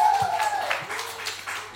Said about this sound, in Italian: Signore e un applauso al gatto parlante.